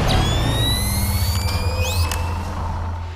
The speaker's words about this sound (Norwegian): Lyden du nettopp hørte, er ikonisk for splinter Det er lyden av at Sam Fishers Night Vision Goggles skrus på